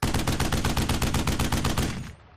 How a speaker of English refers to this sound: Okay, so boosh, the shot goes off. And you just you hear re- return fire.